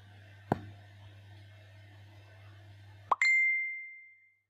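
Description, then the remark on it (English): A low, steady hum, broken by a brief knock, then a phone message notification chime rings out once as a message arrives, bright and clear, fading over about a second. “How weird, Thom just messaged me.”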